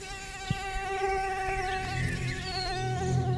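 A mosquito whines steadily, its thin high-pitched buzz wavering slightly in pitch for several seconds, with a faint soft thump near the start and no voices.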